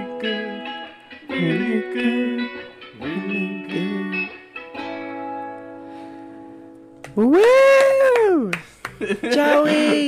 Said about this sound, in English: These cats.